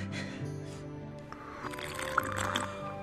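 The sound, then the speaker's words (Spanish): Water splashes and drips, with wet slurping sounds like someone scooping and drinking from a river, over a soft, steady tonal background. “¡Qué río tan agradable! El rey David lo llamó el río de Dios y Juan el río del agua de la vida.”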